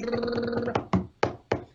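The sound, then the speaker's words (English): Four sharp hand taps on a hard surface, evenly paced as a quick improvised drum roll, following a brief stretch of sustained tonal sound. “That's my drum roll.”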